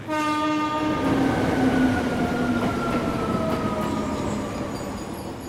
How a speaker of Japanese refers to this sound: 3番線ご注意くださいまもなく電車が参ります黄色い線の内側まで下がってお待ちください